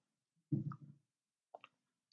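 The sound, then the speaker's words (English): A quick sip of water and swallow: a soft wet gulp, then a pause and a couple of small moist clicks from the mouth and throat, all fairly quiet with no talking. “Sorry, I'm just taking a sip of water here.”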